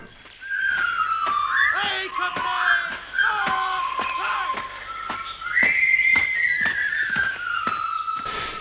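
A bright whistled march melody from the soundtrack of the 1957 film The Bridge on the River Kwai, directed by David Lean, rises and falls in a jaunty tune, carried loudly over a rhythmic band accompaniment with steady drum-like beats underneath.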